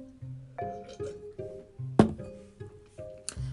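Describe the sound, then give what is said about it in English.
A sharp glass clink rings out over light, plucky background music, followed by a second bright chime near the end, like glasses tapped together in a toast. “so let's cheers to those spooky mid and north country stories.”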